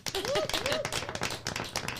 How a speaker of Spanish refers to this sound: Un aplauso, por favor. Aplausos, ah, aplausos.